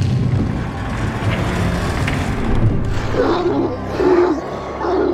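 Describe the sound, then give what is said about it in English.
Cerberus, the hellhound guarding the doors of Hades, roars and snarls, deep and rumbling, loud throughout the few seconds, with harsher, more tonal growls bursting out in the second half. No one speaks. “Getting past Cerberus was even easier. All it took was a belly rub and a few Gigante's bones, and the hellhound let them stroll right through.”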